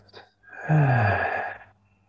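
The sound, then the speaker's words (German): A single deep, breathy exhale lasting about a second, fairly loud, with a soft voiced sighing tone at its start before trailing off into quiet, during a guided breathing exercise after a deep inhale through the nose. “Das heißt, wir atmen einmal tief durch die Nase ein und wieder aus”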